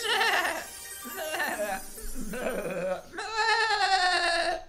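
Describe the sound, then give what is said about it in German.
Several goats in a herd bleat in quick succession, their wavering, quavering cries overlapping, ending in one long, loud drawn-out bleat. “Und nur Anashta und der Ziegenjunge sahen sich inmitten einer Herde Ziegen.”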